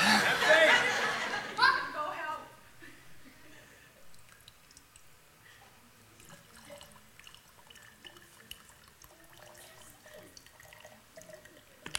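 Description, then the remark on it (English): A brief rush of oil being poured for about two seconds, then quiet with faint scattered drips and small clicks. “Pour it.”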